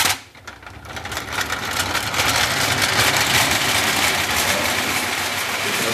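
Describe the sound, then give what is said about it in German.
A small, cheaply built wind-up toy train, wound up and set down on a floor, rattles and whirs steadily across it, a dense buzzing clatter that swells after a brief start and keeps up continuously without any voices. “Und wenn man es dann auf den Boden setzt, dann rollt sie natürlich auch dann hier.”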